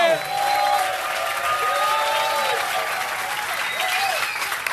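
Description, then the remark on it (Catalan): An audience applauds steadily for several seconds, a dense, loud patter of clapping hands that holds an even level throughout, with faint tonal whoops or whistles rising and falling over it. “Gràcies, bon oh! aplaudiment!”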